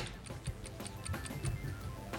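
A clock ticks steadily, a run of sharp, evenly spaced clicks over a low hum, clear and close with no voices.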